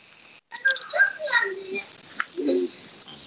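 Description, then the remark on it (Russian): A young child makes high-pitched squeaky vocal sounds in short, uneven bursts over about three seconds, moderately loud against a faint background hiss. “у тебя там кто-то пищит.”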